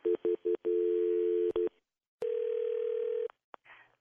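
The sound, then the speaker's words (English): A telephone line ringing on a call: a few quick electronic beeps, then long steady ring tones separated by a pause, clear and alone with no talking. “Okay, it's ringing.”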